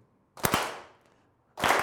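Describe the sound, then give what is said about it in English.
A group standing in a circle claps once together in a sharp, loud, slightly ragged burst that rings out and fades, followed moments later by a second unison clap from the group. No one speaks. “So, wait till I clap, then you can clap.”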